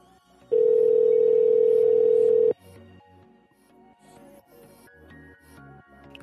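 A prank phone call rings once with a loud, steady electronic tone lasting about two seconds while the call waits to be answered, then fades into quieter background sound.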